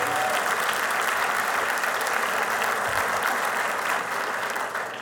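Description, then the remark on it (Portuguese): An audience breaks into a sustained round of applause for Jesus, dense steady clapping holding at an even level for several seconds before easing slightly at the end, with no talking over it. “Para Jesus e para você, dê uma forte salva de palmas, aleluia.”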